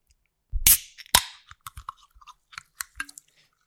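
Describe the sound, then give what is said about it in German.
A black can of 28 Black energy drink is cracked open: a loud metallic pop with a brief hiss, a second sharp snap, then a scatter of small clicks and taps as it's handled. “Ich werde jetzt gleich hier etwas öffnen und Sie sagen mir direkt, was es ist.”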